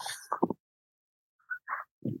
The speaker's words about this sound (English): My dog Frank, he's annoying. Sorry. Dog. Yeah, he's he's right here, dude. This guy. he's a piece of work.